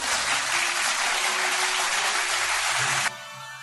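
A dense wash of applause for a song nomination, many hands clapping steadily and loudly for about three seconds, then it cuts off abruptly into a thinner, quieter hiss.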